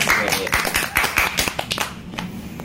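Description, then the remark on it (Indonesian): Hands clap to congratulate a friend who passed the SNMPTN. The claps come in a quick, steady run of sharp, bright claps for about two seconds, then trail off into a few scattered, softer claps. “Eh, tepuk tangan dulu oh, dong. Tepuk tangan oplus Aplaus.”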